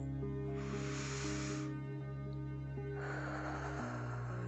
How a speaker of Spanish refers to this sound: haz una respiración profunda. Inspira con la nariz